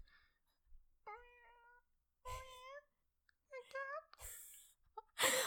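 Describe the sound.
A person imitates cat meows, about three drawn-out, pitch-gliding mews in a row, fairly loud, broken up by short breathy bursts of noise.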